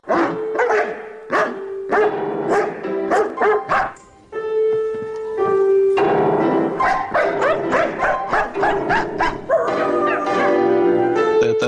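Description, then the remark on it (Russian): A husky barks in a quick series of sharp yaps, breaks into a drawn-out whining moan, then carries on with loud, mixed barks and whimpers for several seconds. “Более того, и наша собака, и все хаски, они каждый день, каждую минуту проверяют на прочность хозяев.”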